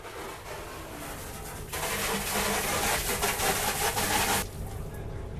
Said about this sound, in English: That's the sound of feverish deck washing on the new Aran Island ferry, Saoirse na Farraige, and we're in Rossaveel.